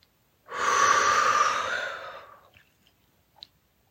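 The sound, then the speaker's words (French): A long, deep breath pushed out slowly during a breathing exercise while miming diving the hands into water, a loud airy rush lasting about two seconds that gradually fades away, followed by a faint small click, with no talking. “Expire en la plongeant dans l'eau.”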